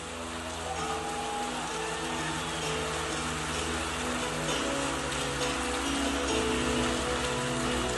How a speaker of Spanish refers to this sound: Alguien aplauda al rey, aleluya. Más fuerte para Dios.